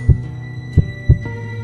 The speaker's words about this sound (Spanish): Mientras tanto, el infernal latido del corazón iba en aumento. Crecía cada vez más rápido y más fuerte a cada instante.